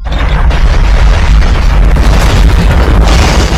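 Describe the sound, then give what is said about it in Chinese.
A continuous, heavy rumbling boom with deep low-end roar and crackling, rattling debris on top, staying loud and sustained throughout as a mountain cave shakes violently in an earthquake and the ground seems to sink. No voices. “忽然，山洞开始发生剧烈的震动，地面似乎在开始下落。”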